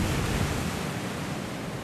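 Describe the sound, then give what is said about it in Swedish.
Steady, broad rushing of sea waves washing against the shore at Liepaja, where the sea is eating away the ruins of old military defence buildings. A continuous hiss with a low rumble underneath, moderately loud and without any voices. “men det är som ruiner av gamla förs försvarbyggnader som funkade som militära objekter före Sovjettider och också under Sovjettider och nu är bara kvar ruiner och vi ser hur havet äter upp även de, det som finns kvar småningom.”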